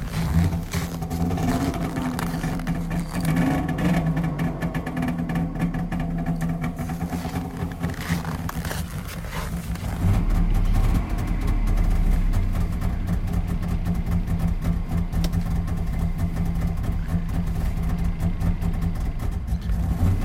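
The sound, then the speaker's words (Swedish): A car that stood outside overnight at minus 20 degrees is started with the choke out; the engine idles with a steady low rumble, then is revved at about ten seconds, growing louder and rougher before settling into a sustained, higher running drone. “Gasa lite får vi höra.”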